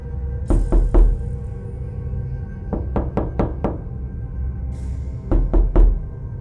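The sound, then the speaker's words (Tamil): Knocking on a door from inside a restroom in three bursts: three raps, then a quicker run of five, then three more, sharp against a low steady hum, with no voices. “அப்போது யாரோ கதவை தட்டுற சத்தம் கேட்குது ஆனால் அந்த சத்தம் எங்கேருந்து கேட்குதுன்னா அந்த ரூமில் இருக்க ரெஸ்ட் ரூமில் இருந்து வருது”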